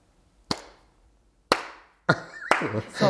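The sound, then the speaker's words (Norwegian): A few slow, hesitant hand claps from an audience clapping uncertainly after a comedian's joke gets no laughter, landing about a second apart, each sharp and ringing briefly, followed by a quicker clap as a voice starts talking over the end. “Og da begynner folk sånn å klappe sånn.”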